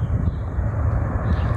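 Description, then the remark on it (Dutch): A Boeing 747 jet airliner roars as it makes its final landing in the Mojave Desert, its engines a loud, steady low rumble with a faint hiss above, continuous throughout with no pauses. “Ja, en viel, dit is echt de landing van de BFS.”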